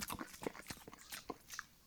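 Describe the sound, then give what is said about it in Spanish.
A rapid, irregular series of soft, wet mouth clicks and smacks, made deliberately by a voice to imitate saliva noises, quiet with no talking. “Cuando estoy limpiando como babitas, como el”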